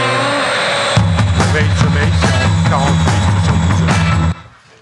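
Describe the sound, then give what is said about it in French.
A loud jet airplane roar with a high whine, joined after a second by deep rumbling layers and pulsing bursts, holding steady before cutting off abruptly near the end. “nous avons des gens qui, à la technique, nous font des petites blagues régulières pour étayer C'est un avion, parce qu'on était en parlant de jet lag.”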